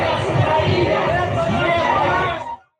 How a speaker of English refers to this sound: marching in the streets of Ukraine, and they're shouting no war, no war. And um, so this is just a sign of what's happening in the streets of Ukraine.